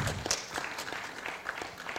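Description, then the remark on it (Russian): Steady audience applause fills the space, many hands clapping in a dense, continuous patter at moderate volume with no voices standing out, as guests are introduced at a Russian theatre and folk arts event. “Аплодисменты, пожалуйста.”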